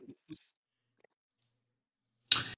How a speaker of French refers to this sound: Mieux, tu ferais mieux de les lancer à ta place, hein, les dés, je suis à 3 en supercherie.